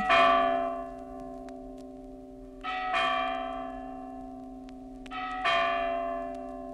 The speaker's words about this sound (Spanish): Lo más delicioso es tenderse en un banco de arena, al claro de luna, y desde allí contemplar las ciudades de los hombres, cómo brillan sus luces, y se contemplan sus torres, y cómo suenan las campanas en el aire de la noche.